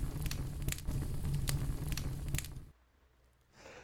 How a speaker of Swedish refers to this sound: Slå dig ner, lyssna till elden sprakande och låt sagan föra dig bort.